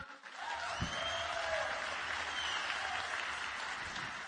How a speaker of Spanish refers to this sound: Quiero que le regalen un fuerte aplauso por tremenda convención.